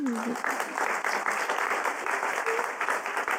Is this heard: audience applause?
yes